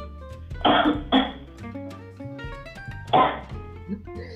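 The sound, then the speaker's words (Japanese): Muffled coughs, as if turned away from the mic: two quick ones close together, then a single cough a couple of seconds later, over a steady tonal background. “すごいめっちゃ振り向いて咳してる感あるよ”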